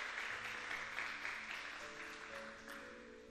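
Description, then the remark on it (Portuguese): An audience claps for the Lord in a steady, dense wash of applause, with sustained keyboard-like musical tones holding underneath throughout. “Se você crê nisso, aplauda o Senhor porque Ele é bom.”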